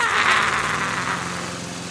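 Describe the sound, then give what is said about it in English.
A lawn mower engine runs steadily and loudly, with a buzzing, rattling drone, holding constant for a couple of seconds. “Why is the lawnmower chopping my feet off?”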